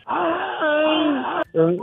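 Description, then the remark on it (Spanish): A voice imitates a mournful wailing lament, a sustained sliding moan held for over a second, briefly breaking off and then resuming, fairly loud with no other sounds. “No, pero sí, verdad, yo, yo, yo, los he escuchado los gritos así, los lamentos así.”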